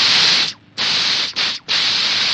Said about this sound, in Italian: C'è chi si munisce anche di elmetto e sacchi di sabbia o di spray al peperoncino da spruzzare al prepotente di turno.